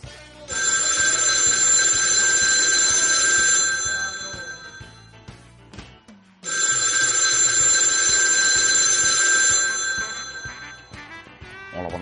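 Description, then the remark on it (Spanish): An old-fashioned telephone bell rings as a call is placed, in two long bursts separated by a short pause, loud, with a bright metallic trill and no one speaking. “Y ya sabéis, tenemos nuestro teléfono fantasmal preparado para llamar a nuestros queridos compañeros. Bien, marcamos”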